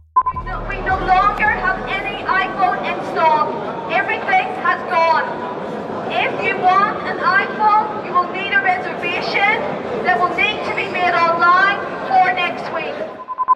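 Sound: crowd commotion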